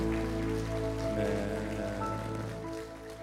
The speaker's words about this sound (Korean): 하나님 앞에 감사와 영광의 박수 올려드립니다. 네.